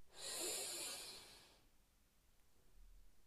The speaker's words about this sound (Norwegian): så gjør vi det en siste gang. Pust godt inn.